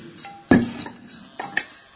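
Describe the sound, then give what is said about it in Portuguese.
A glass jug clinks sharply against something hard as someone gets more water from it, followed by a few softer knocks and one more bright clink, with no talking. “Na minha goranga de vidro.”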